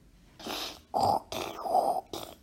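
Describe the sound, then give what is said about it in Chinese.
A person imitates a pig, voicing the story character Gus (葛斯) making pig noises, with a quick run of about five snorting grunts, rough and nasal, delivered in a choppy rhythm with short breaks and no other talk. “葛斯又学起了猪叫。”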